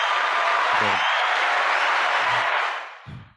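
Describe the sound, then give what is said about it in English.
A burst of canned applause, dense and steady clapping that swells loudly for about two and a half seconds, then fades out, with a couple of brief low voice murmurs underneath. “Clap track, dude.”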